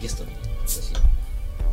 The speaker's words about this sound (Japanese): 新しいビールを開けますね